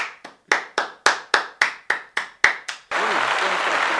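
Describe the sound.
A steady run of about a dozen sharp, evenly spaced handclaps gives way to a loud, dense burst of audience applause welcoming a speaker at a talk, with faint voices mixed in near the end.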